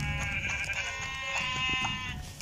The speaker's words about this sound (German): Aber es war nur ein schwarzes Schaf.